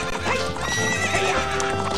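A horse's hooves clip-clop in a steady rhythm while it neighs and whinnies loudly over them, a busy mix of hoofbeats and high, wavering calls with no talking.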